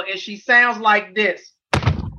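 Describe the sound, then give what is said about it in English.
A brief spoken phrase, a moment of silence, then a single heavy, dull thunk with a metallic edge as a dog in a closed plastic bag is put onto a metal examination table in a vet's examination room, like a brick dropped into a metal bucket, loud with a short rumbling decay. “I mean, if you had if the if the sound of a brick going into a metal garbage can, a metal bucket is what it sounded like.”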